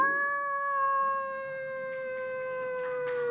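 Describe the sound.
A person imitates a wolf howl with a single long, steady, mid-pitched wail rich in overtones. It is held for over three seconds and dips slightly at the end.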